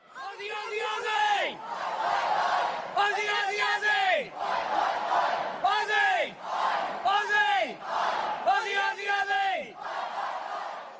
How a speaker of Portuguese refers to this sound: A origem do Ozzy vem das três primeiras letras da palavra Austrália. O Aus foi sendo pronunciado como Ossi até virar Ozzy e ser cantado pela torcida em competições internacionais.